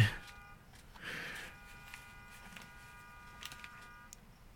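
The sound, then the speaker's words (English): A car's steady electronic alarm-like buzzing tone with stacked harmonics drones on for several seconds, fairly quiet, with faint background noise. “No, it's a car, but. Oh, someone's car.”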